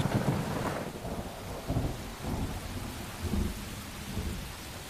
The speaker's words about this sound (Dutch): Vlammende bliksemschichten, het zand dat opwaait, het geheimzinnige huilen in de mastenbossen, de machtige donderslagen die langzaamaan wegsterven, tot enkel nog het een eentonig, droef gekletter van de regen overblijft.